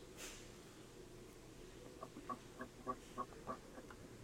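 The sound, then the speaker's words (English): A person imitates a duck, letting out a rapid run of about eight short, nasal quacks in an even rhythm, fairly quiet against a low background hum, with no talking. “Why are you quacking? Like someone fucking turned into a duck?”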